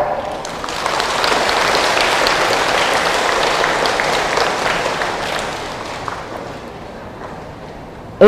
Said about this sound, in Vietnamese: hãy dành một tràng vỗ tay thật lớn để cam kết